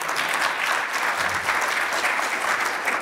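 An audience applauds the panelists and the moderator at the end of a panel presentation, a steady, dense wash of many hands clapping at an even loudness throughout, with no voices standing out above it.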